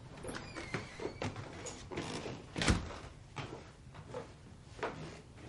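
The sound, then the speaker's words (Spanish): A door being shut: a series of soft clicks and rattles builds to one solid thud midway, followed by a few lighter knocks as it settles. “Marian encierra la puerta y les mira extrañado.”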